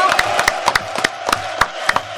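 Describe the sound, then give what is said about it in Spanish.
A small group applauding, with sharp, uneven claps crackling over a steady murmur of background crowd noise for a couple of seconds, fairly loud and without a steady rhythm. “Creo que todos aplaudamos acá por demonio, por un, premio. A ver, el aplauso.”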